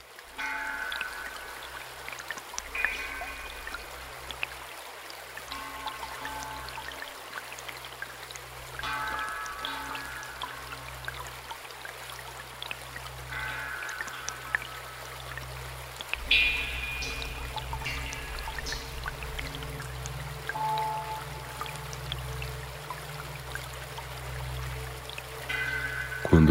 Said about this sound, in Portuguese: Nele, o som é produzido pela ressonância de gotas que caem dentro de um grande vaso fincado no solo.